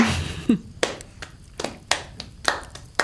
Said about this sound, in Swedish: Och går tillbaka till eh, lägerelden och den här gången får du faktiskt långsamma applåder.